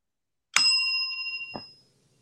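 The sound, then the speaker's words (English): A bell is struck once and rings out clearly with a bright, sustained metallic tone that fades over about a second, followed by a short dull knock. No one speaks. “I'm gonna need somebody to hit that bell.”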